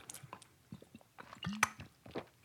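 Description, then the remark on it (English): Someone sips Angry Orchard hard cider from a bottle: soft wet mouth clicks and smacks, then a short gulping swallow, all fairly quiet and with no talking. “had to take another sip.”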